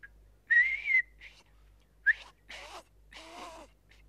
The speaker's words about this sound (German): Können Sie überhaupt pfeifen? Natürlich. Ich höre. Was für ein gemeiner Ton. Hören Sie mal her.